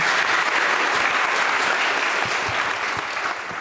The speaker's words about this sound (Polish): Wielkie brawa, bardzo dziękujemy.